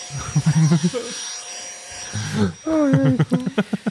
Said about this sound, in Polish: Ale zmienił chyba ten odkurzacz. Faktycznie lepiej ciągnie, słychać.